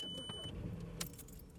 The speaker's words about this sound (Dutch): En weet je wat ook leuk is aan eh, Park Asterix? Dat ik nu mijn sleutel in het contact steek en ik start de auto.